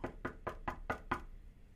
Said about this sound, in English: They knocked on the door,